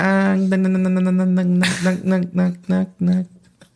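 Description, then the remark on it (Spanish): A voice imitates a cicada's call: a steady nasal buzzing drone, a brief hissing rasp, then several quick rhythmic pulsing bursts, fairly loud. “Era una ah, cigapa que. Una cigapa.”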